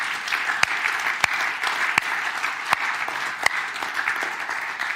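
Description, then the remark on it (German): A church audience applauds its older generation, dense overlapping hand claps with a few sharper, louder claps standing out, sustained for the whole stretch without any voices. “Ein paar sind auch hier, ich möchte es ganz deutlich mal sagen und ich möchte auch, dass wir mal unserer älteren Generation, die, die echt beten kann, einen Applaus geben.”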